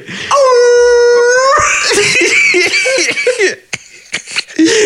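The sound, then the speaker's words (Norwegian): A person imitates a wolf howl, a loud sustained wavering tone for about a second and a half, then breaks into yelps and whoops before trailing off into laughter-like bursts. “Få høre ulv.”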